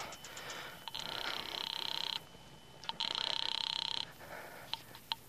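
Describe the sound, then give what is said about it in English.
A telephone rings twice in long, trilling bursts with a pause between them, fairly clear, with a few faint clicks around the rings and no one speaking. “Instead, I went to the phone booth and called my sister”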